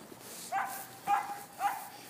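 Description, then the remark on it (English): A dog in a yard barks three times at a steady pace, each short bark fairly high-pitched, with faint background noise and no talking. “Meanwhile, there's a a dog in a yard.”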